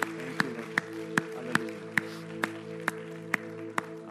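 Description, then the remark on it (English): Sharp claps land in a steady beat, about ten of them, as a round of applause given to God after a prayer, over a held chord of sustained, organ-like tones. No one speaks. “Hey, can we give a round of applause to our God who rose from the dead and is changing lives?”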